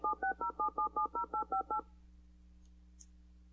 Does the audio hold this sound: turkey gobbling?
no